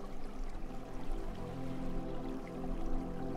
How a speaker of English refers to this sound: The sound of the ocean brings your muscles down into contentedness